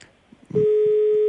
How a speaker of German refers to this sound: Ich glaube, wir bekommen hier gerade ein Freizeichen nach Kroatien.